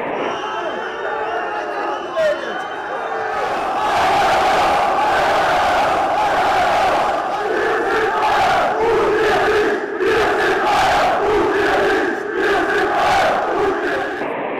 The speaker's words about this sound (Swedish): Detta är alltså medlemmar då eh, som eh, skriker eh, i princip Heiner Raus är det väl. Mm. Ut med Heiner som är mm, ordförande i, i mm. ja, Bayern München.